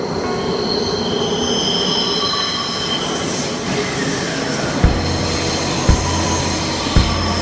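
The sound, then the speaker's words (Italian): A metro train rolls along with a steady rumble, high-pitched wheel squeal running through it, and three sharp rhythmic clacks near the end as wheels pass over rail joints. No one speaks. “Invece la metro ci lascia proprio lì.”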